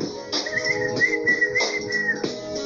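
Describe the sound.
Someone whistles a warbling, bird-like tune in four short, high phrases, each opening with a breathy burst, imitating a songbird. Moderately loud, with no talking.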